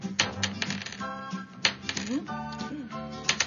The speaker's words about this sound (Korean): 영롱한 소리. 예, 들리죠. 이게 주사위를 갖다 제가 손에서 모았다가 이렇게 위에서 밑으로 떨어뜨리는 소리예요. 그래갖고 이 주사위에다 저희가 마이너스 곱하기 아, 더하기 빼기를 다 그려놨어요.